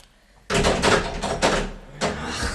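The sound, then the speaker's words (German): Someone rattles and jiggles the handle of a locked door several times in quick bursts, checking whether it is really shut, producing loud metallic clatter; the door does not open. “Hm, ich will jedoch noch mal prüfen, ob die Tür wirklich zu ist.”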